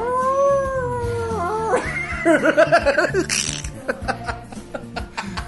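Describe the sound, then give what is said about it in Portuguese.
A person gives a thin, wavering imitation of a Brazilian werewolf (lobisomem) howl for about two seconds, then it collapses into choppy, laugh-like vocal bursts, fairly loud. “É tipo, o cara não imita nada bem. É muito tosco. Porque não é um uivo, uivo foda, é tipo um negócio mó bosta, tá ligado?”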